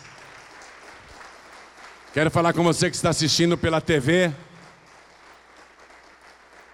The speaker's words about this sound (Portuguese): Aqui tem o sangue de Jesus, vem para cá. Vamos aplaudir mais.